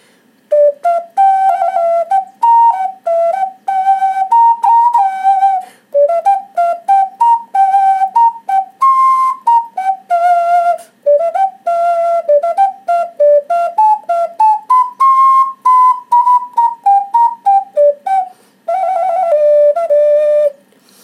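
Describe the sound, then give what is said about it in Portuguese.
An ocarina plays a simple melody for about twenty seconds, its breathy, pure, flute-like tones moving in short phrases with quick tongued notes and brief pauses, loud and alone with no talking. “E eu vou demonstrar para vocês, por exemplo, uma coisa que eu comprei lá. Vários instrumentos eu fui comprando lá, né? Que eu curto música. Comprei uma ocarina.”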